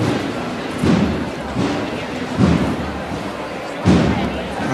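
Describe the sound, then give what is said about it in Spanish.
Deep, booming drum beats of a religious brotherhood's procession from El Plantinar strike slowly and a little unevenly, four or so heavy thuds rising above a constant murmur of crowd noise. “Y de momento llegando con a golpe de tambor.”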